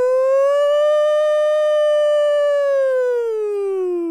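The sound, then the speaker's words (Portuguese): A single voice wails in imitation of a 'controversy siren': one loud, sustained rising-and-falling tone lasting about four seconds, with no other sounds around it. “Como que é a sirene da polêmica?”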